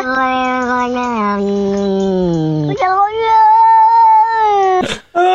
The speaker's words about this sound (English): I don't know when you're watching the video and you see the cat's mouths moving to that sound that you kind of hear it better I think yeah.